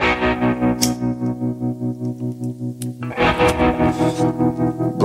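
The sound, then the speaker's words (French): A rock song opens with heavily distorted, effects-laden electric guitar chugging in a steady pulsing rhythm, then swells into a fuller, louder band sound partway through, with no voices. “C'est sur Restless, quatrième nouveauté rock, avec donc … de ….”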